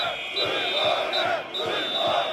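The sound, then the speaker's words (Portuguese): A crowd of protesting police officers in the area of the Capitólio chants slogans together, shouting "vergonha" (shame) and demanding respect, a dense roar of many voices rising and falling in rhythmic bursts, with whistles or shrill tones cutting through above. “Mas durante todo o debate, os polícias não arredaram pé da zona do Capitólio, insistindo nas palavras de ordem que já marcava o protesto que começou horas antes, em frente ao Ministério da Administração Interna.”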